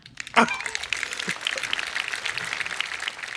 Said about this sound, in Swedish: Applåderna också.